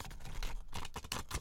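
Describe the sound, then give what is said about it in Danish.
Paper pages of a notebook being flipped through, a quick run of soft, dry rustles and flicks, fairly quiet, with no voices. “Som jeg bladrer ja, i. Som du der. bladrer i”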